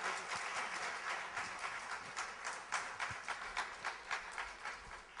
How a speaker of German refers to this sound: Lass uns Sie mit einem Applaus äh, willkommen heißen.